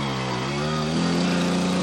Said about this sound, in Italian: sta arrivando lo scooter della Rai per riportarmi a casa